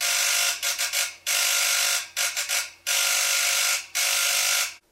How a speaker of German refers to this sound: Das ungestüme, wenig damenhafte Klingeln verriet ihr, dass ihre Schwiegertochter doch noch Zeit für ein Gespräch fand.